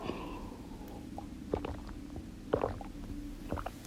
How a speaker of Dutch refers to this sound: Maar ik pak even een slokje water voordat ik je daarover ga vertellen.